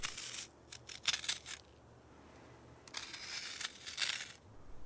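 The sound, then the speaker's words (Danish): Two bursts of dry, gritty scratching, each a quick run of short rasping strokes as a homemade darning needle scrapes crumbly mortar from between bricks in a prison, fairly quiet, with a pause between them. “Krasse pusset mellem murstenene ud, inden han knuste de første sten”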